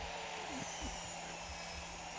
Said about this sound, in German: so, jetzt, jetzt ist die Kettensäge dran im Hintergrund. Mal gucken, ob man sie gehört hat.